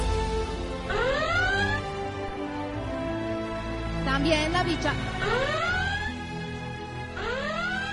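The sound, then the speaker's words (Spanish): A reactor alarm, set off when Hals the hamster activated the reactor again, sounds in loud, rising whooping sweeps that repeat about three times, with a person speaking briefly between the tones. “Creo que está sonando una alarma.”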